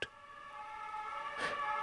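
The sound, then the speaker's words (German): Fire engine sirens wail in a steady, sustained tone around a hotel on a winter night, fairly quiet, with a brief burst of noise near the end and no voices. “Sirenen, Rufe, Schreie.”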